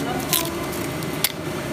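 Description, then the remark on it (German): A swing-top bottle is opened without a real pop: a short, soft hiss of escaping gas, then a second brief gassy puff a moment later, fairly quiet. “Ja, hat nicht plopp gemacht. Also so eine Ploppflasche eigentlich sollte es.”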